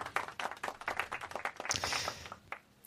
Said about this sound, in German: Applaus. Applaus. Das äh, können wir jetzt einspielen an dieser Stelle.